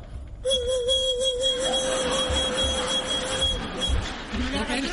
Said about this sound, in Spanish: Yo, tío, que estamos en carnaval, que hay que innovar. El pito de toda la vida, el pito de golondrina.